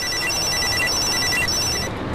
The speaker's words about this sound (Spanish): Sonó su celular.